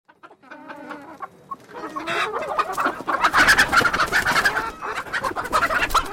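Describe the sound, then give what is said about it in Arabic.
Chickens cluck in a busy, overlapping chorus, starting with a few sparse calls and quickly swelling into loud, continuous clucking with no one speaking. “انا سعيده لان دجاجاتنا تبيض كل يوم”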